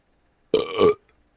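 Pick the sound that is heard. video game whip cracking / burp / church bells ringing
burp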